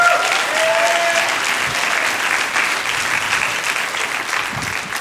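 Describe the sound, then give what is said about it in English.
Steady, dense applause from a sizable crowd for a man as he comes forward, filling the whole stretch, a continuous wash of clapping hands that holds at a fairly loud, even level throughout. “And so the first person, uh, I'm going to ask you to give it up for my dad as he comes.”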